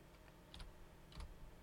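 Soft clicks of typing on a computer keyboard come in two brief bursts of a few keystrokes each, quiet, with no voices.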